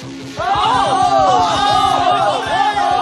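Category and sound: crowd, crowd cheering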